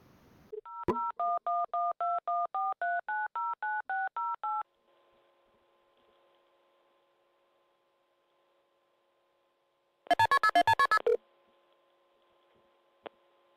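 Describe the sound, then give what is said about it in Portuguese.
A rapid run of about a dozen touch-tone beeps as a phone number is dialed, followed by a faint steady line tone and later a short burst of quick, bright beeps. “Dava uma gravação assim que você ligava nesse número de telefone.”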